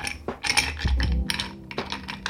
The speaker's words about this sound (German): Wir nehmen uns ein relativ hohes Glas, ein sogenanntes Highball-Glas oder Longdrink-Glas, füllen das bis zum Rand mit Eis.